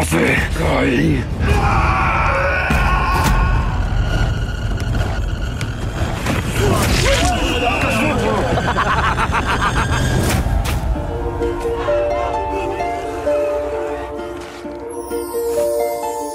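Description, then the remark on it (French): A riot crowd yells and bellows in a dense, chaotic roar, with sharp shouts, whoops and bangs cutting through, during a riot in which cars are apparently being burned; toward the end the din thins and sustained tonal wails rise above a quieter rumble. “Ils brûlent les voitures, j'ai l'impression.”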